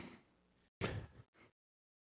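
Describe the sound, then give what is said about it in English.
A water bottle lid squeaks and scrapes as it is twisted back on, with a faint rub, then a louder burst and a short final squeak before silence. “And it squeaks.”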